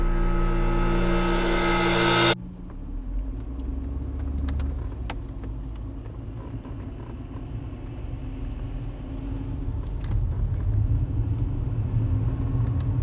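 A car drives steadily along the road toward a small town in Quebec, its deep engine and tire rumble filling the space in a continuous low drone, heard as if from inside the vehicle.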